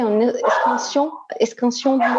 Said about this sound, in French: On a ton chien, c'est ton chien là derrière C'est mon chien là.